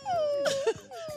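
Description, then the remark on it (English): A puppy squeals in a long, thin, high-pitched whine that sags and holds, then a second drawn-out squeal follows, fairly loud, with brief voices breaking in. “Is that a puppy squeal?”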